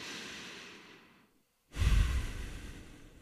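A long, steady breath drawn deeply into the belly and diaphragm, a brief pause of silence, then a strong, breathy exhale that starts loud and gradually fades, with no talking.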